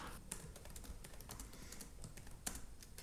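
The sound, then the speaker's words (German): Rapid, irregular clicking of keys on a white laptop keyboard on a living room table, fairly quiet, with a few sharper taps standing out against a soft background hum. No one speaks. “Max lehnt sich über den weißen Laptop auf dem Wohnzimmertisch. Seine silbernen Halsketten baumeln über der Tastatur.”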